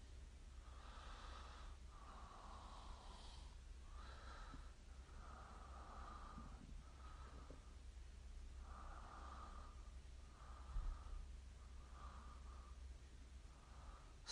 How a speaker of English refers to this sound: Stop it. I'm just trying to breathe, people. Why do you keep talking about how hard I'm breathing? Leave me alone.